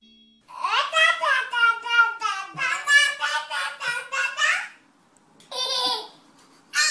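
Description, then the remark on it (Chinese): Twin babies in the United States, recorded in 2011 in a clip that went viral online, babble back and forth in high, sing-song streams of nonsense syllables, one long animated run of chatter followed by a pause and a shorter reply. “这是二零一一年美国一对双胞胎的对话，当时在网上很红的”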